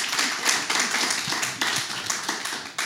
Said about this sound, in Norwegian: Ja, få litt applaus.